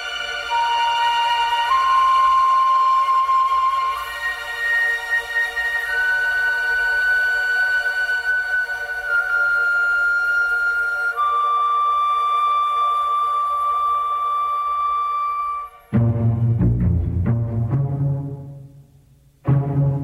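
Instrumental film-score music with long sustained tones that step slowly through a melody, then a fuller, lower-pitched passage swells in near the end. No voices.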